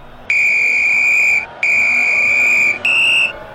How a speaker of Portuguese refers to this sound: O juiz acabou de apitar. Aí eu apito, ó.